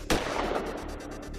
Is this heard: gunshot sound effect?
yes